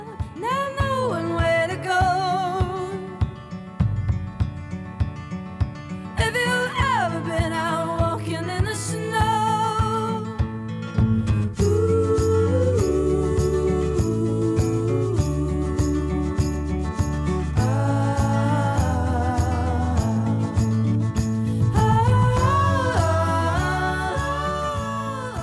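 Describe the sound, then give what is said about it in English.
A stretch of a recorded song from an album plays on its own: a full band with steady bass and drums and bright melodic lines, loud and continuous, shifting sections partway through without any talking over it. “soon as I heard this song on this album, I'm like, was this used on a car commercial?”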